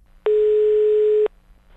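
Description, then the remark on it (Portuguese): A single one-second telephone ringing tone as a phone call is placed, a steady electronic hum that sounds once, loud, then stops, with only faint background noise around it and no talking. “Ai, liga, vai, Tonho. Então vamos, liga, vai, liga.”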